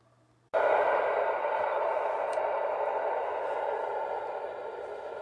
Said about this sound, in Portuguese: o vento.